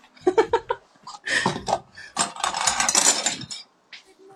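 A bunch of chopsticks falling and clattering: a few quick wooden clicks, then a dense, bright rattle of many sticks hitting and bouncing for a couple of seconds before a last few taps.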